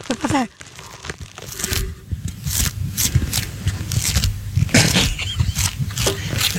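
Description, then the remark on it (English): Pages of a paper pad being flipped and handled, a steady run of crisp rustling and crinkling bursts at an irregular pace that continues throughout. “What are you doing? flipping a pad.”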